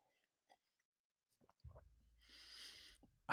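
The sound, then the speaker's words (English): A quiet slurping sip of coffee with a soft airy intake, followed by a faint low clunk, like a mug being set down, and a brief louder noise at the end. “Maybe another sip of coffee here.”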